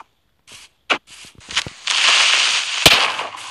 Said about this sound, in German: Der Creeper hat jetzt nur ein kleines bisschen, ein bisschen in die Luft gejagt.